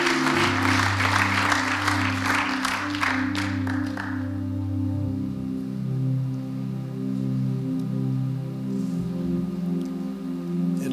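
An audience claps warmly for about four seconds, a dense burst of applause that fades out while steady, sustained organ-like tones continue underneath and carry on alone.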